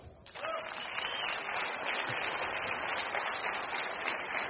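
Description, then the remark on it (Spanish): Sustained audience applause, a dense wash of many hands clapping at steady loudness for several seconds without pause. “Ven para acá, démosle un aplauso.”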